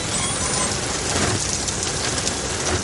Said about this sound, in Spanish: Llueve con fuerza.